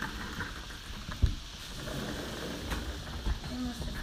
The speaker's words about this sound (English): I'm getting I'm getting rained on. I'm coming inside.